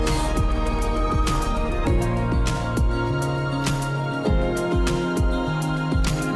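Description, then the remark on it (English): A song plays loudly and steadily, with a guitar sitting in the background beneath punchy drum hits and a deep bass line that land in a regular, mid-tempo rhythm; no one speaks. “You can hear a little guitar in the background there.”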